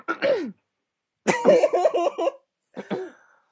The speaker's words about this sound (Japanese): なんでさ、そんな、おかまみたいな咳が出た。うんふんって言ってるやん。うんふんって言ってるやん。